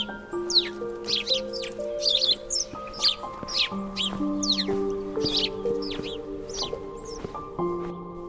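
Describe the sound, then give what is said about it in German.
Two startled sparrows chirp in quick, repeated bursts from a tree in the evening, fairly loud, over a steady layer of sustained, droning tones in the background. No one speaks. “Aber die zwei fliegen schnell hoch auf einen Baum und beschweren sich mit lautem Zwitschern über die abendliche Störung.”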